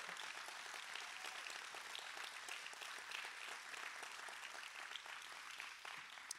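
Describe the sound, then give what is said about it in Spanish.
A large crowd at a church applauds loudly and steadily in celebration, a dense wash of many hands clapping at once that fills the whole space for several seconds without pause. “¿Lo puedes celebrar? Vamos, dáselo fuerte.”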